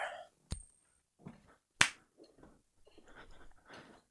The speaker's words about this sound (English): Without further ado, let's get into tossing the new coin. Here we go.